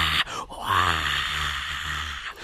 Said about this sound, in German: ich dachte, … jubelt, aber er gähnt einfach nur